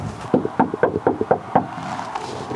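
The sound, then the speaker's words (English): A quick series of about eight sharp knocks on the wooden door of a house on the same lot as a little yellow house, fairly loud, in an uneven rhythm, made by a reporter, followed by a quiet pause with faint background noise. “There's another house that sits on the same lot in front of the little yellow house. I knock there too.”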